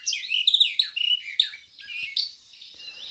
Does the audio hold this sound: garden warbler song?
yes